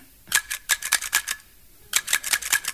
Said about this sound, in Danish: Nej, nej. Jeg skulle bare øve mig i at hæfte rapporter.